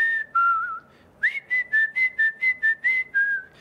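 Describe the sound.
Someone whistles a tune: two held notes with a slight wavering pitch, then a quick run of about nine short, evenly spaced notes. The whistling is clear and bright, with no talking.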